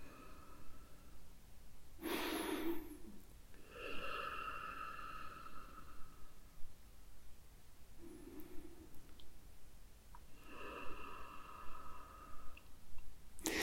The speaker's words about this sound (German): Wieder muss ich atmen, denn ich merke, das Thema ist nicht leicht.